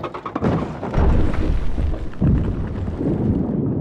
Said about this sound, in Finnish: Lisää lohkareita tipahtelee. No nyt meni kylätalon katto ja Päiviöhäiviön kanala rysähti kerralla säpäleiksi.